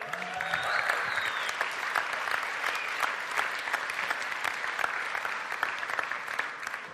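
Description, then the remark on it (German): An audience applauds a man being brought onto the stage, clapping steadily for the whole stretch, a dense wash of many hands at an even, sustained level with no voices standing out. “Also einen herzlichen Applaus für Alex, einen wirklich schönen Mann hier auf der Bühne.”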